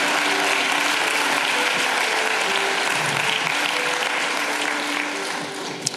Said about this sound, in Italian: diamo tutto l'onore, tutta la gloria, tutto il ringraziamento e tutto il nostro applauso nel nome prezioso di Gesù. Amen.